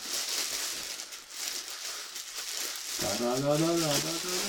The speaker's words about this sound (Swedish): Oj, en plastpåse till. Gud, Fjärde plastpåsen.